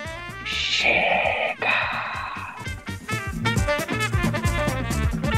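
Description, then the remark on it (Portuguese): A loud, raw, drawn-out scream of indignation bursts out, followed by a second strained cry, both over a busy musical backing that carries on after the shouting stops. “E aproveitem, diminuam o volume dos seus aparelhos, que a minha vontade é de gritar bem alto”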